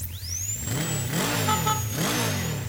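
A motorcycle engine revs up twice in quick succession, its pitch rising and falling with each throttle blip, loud with a steady mechanical whine above. The rider stays on the bike during a dental checkup.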